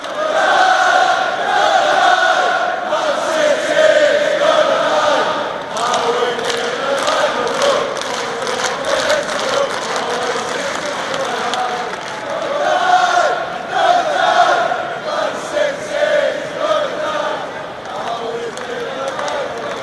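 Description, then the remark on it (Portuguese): A large crowd of Manchester United football fans chants a supporters' song in unison, a dense roar of many voices rising and falling in rhythmic waves, with scattered shouts and thuds throughout for about twenty seconds. “Eu estive em jogos do Manchester City e do Manchester United, gravei algumas músicas da torcida para dar uma ideia, um saborzinho dessa rivalidade. Vamos começar com uma música do Manchester United.”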